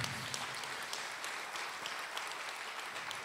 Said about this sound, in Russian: Дай огромные аплодисменты.